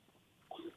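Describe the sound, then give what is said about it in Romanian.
A single short sneeze, fairly faint and slightly muffled, bursts out after a moment of near silence and cuts off quickly. “Sănătate.”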